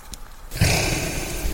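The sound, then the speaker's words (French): A reindeer's heavy, breathy snort right beside the recordist, a short quiet intake followed by a long, loud rushing exhale, with no one talking; a sleigh pulled by reindeer is out in the distance. “Voilà, bah là je vous fais entendre euh, la respiration d'un renne qui est juste à côté de moi.”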